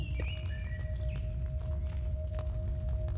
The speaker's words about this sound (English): So we got some production music, got a little bird chirping in the background.